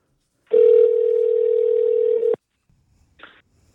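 A loud, steady telephone dial tone hums for about two seconds and then cuts off, followed after a short pause by a brief, faint blip like a single key press.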